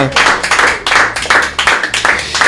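Loud audience applause for the evening's guest on a show: a dense, crackling wash of many hands clapping at once, swelling and dipping slightly in waves but never stopping, with no voices standing out.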